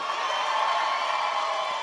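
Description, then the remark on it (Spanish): A crowd shouts and cheers in a steady, dense roar, loud, with excited voices blending together and no pauses across the short burst. “No grite no grite no grite”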